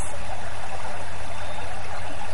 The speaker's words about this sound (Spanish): Ese árbol está cerca de un río. y oyes cómo el agua va fluyendo.